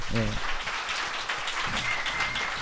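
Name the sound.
clapping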